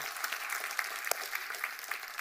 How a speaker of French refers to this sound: Ouais, ok, bienvenue, on peut les applaudir, merci, bienvenue.